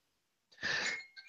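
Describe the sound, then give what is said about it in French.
A magic chime is rung once at the start of a relaxation session, a brief shimmering metallic burst followed by a few high, clear tones that keep ringing softly. No one speaks. “Donc euh, on va, commencer avec le carillon magique et on va tous vraiment s'installer le plus confortablement possible.”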